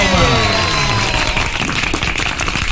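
Loud, steady applause with dense overlapping claps that hold at about the same level for a few seconds, with a faint tonal hum in the opening moment.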